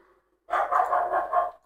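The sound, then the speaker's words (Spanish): A dog barks in a quick, steady run of about five loud barks lasting roughly a second, following a brief quiet moment. “Ese perro no es de nosotros, por si acaso.”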